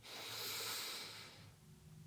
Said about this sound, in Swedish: Så gör vi en gång till. Andas in genom näsan.